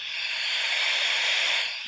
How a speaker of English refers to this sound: So a spirit box sweeps through radio signals and I guess according to I don't know. The ghost world. According to the ghost world, they're supposed to say stuff through the radio frequencies. So it sounds like this mostly.